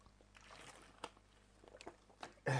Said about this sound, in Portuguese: Deixa eu beber mais um golinho d'água.